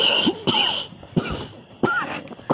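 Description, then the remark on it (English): A person coughs several times in quick succession from smoking tobacco, harsh, chesty bursts with short gaps between them, like a smoker's hacking cough, no talking. “Are oh, you just uh, coughing on tobacco?”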